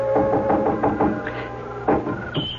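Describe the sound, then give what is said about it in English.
Someone on a porch roof knocks gently at a window: a cluster of soft, quick knocks, followed by a pause and a couple more light raps, with a steady tonal hum of music running underneath. “I doubled back to the trellis in the wisteria and was up on the porch roof in a moment knocking at Polly's window gently”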